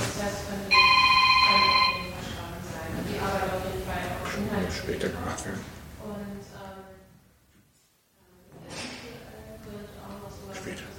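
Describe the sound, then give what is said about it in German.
A telephone rings loudly for about a second, a bright electronic trill over people talking, then the conversation carries on without it. “Telefon.”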